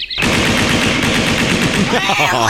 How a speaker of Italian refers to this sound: Eh, tieni, spara 200 colpi in aria con questo AK-15.